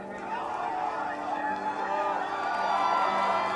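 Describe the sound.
A large crowd erupts in deafening cheering in an airport departure hall after a loudspeaker announcement, a dense, sustained roar of many overlapping voices and whoops that swells slightly louder toward the end.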